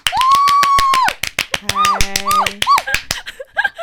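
A burst of canned applause: fast, steady clapping with a long high whistle and short whooping cheers over it, lasting a few seconds before thinning out.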